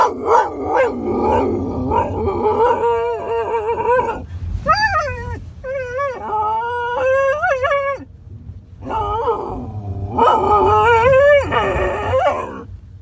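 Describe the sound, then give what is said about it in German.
A dog howls and yowls in long, wavering, rising cries, mixed with short yelping barks, carrying on noisily for several seconds with only brief pauses. “Oder eben, wie man jetzt gerade gehört hat, so ein Theater macht. Anbellen kann man das ja gar nicht nennen.”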